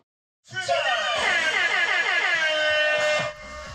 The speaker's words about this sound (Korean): 출발 신호가 울리자 군인과 시민들이 일제히 뛰어나옵니다.